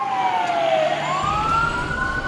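ambulance sirens

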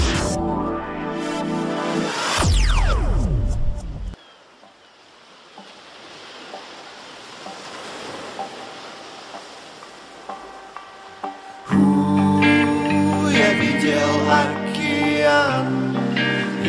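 song being played

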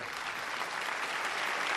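applause sound effect

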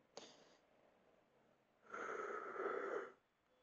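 yawn

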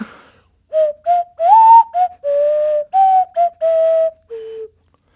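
nose flute being played

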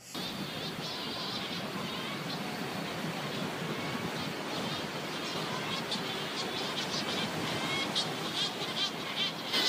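sea surf

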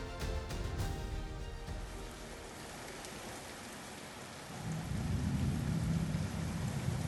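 rain with strong wind

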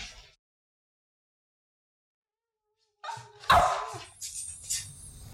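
dog barking

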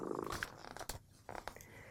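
cat purring

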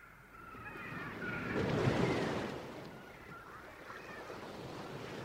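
stormy sea waves crashing

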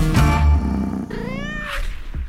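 cat meowing

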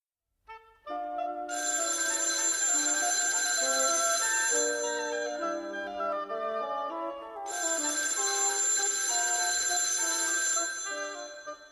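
telephone ringing

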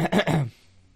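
coughing

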